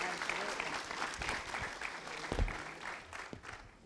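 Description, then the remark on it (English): An audience breaks into sustained applause for the panel one morning, a dense wash of many hands clapping at steady volume, with a few sharper individual claps standing out and faint voices underneath. “Hey, can we give it up for our panel this morning, guys?”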